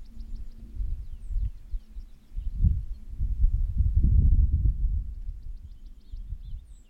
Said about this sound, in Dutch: Maar ik ben ook oh, bang dat je mijn maag hoorde rommelen.